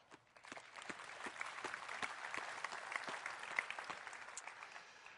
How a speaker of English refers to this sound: And we just really appreciate you. And again, I'd like to give you guys a round of applause.